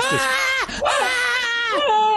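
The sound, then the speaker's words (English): A person vocally imitates a wolf's pained yelp: two sharp, high, strained cries with a brief break between them, loud and harmonically rich, voiced without words around them. “and this wolf, ah!”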